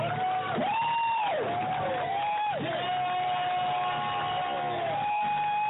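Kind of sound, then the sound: crowd, applause and cheering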